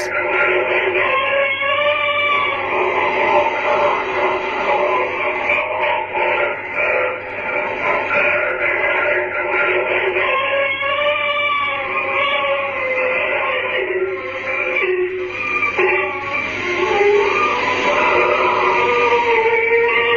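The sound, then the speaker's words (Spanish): Continuous wavering, moaning wails and cries layered over a hissy, radio-like noise bed in a psychophony tape recording, the laments seeming to grow as the seconds pass, fairly loud throughout, with no clear words spoken. “este fragmento se escuchan llantos durante la mayor parte del audio, lamentos que parecen ir a más según pasan los segundos y finalmente el sonido de unas campanas.”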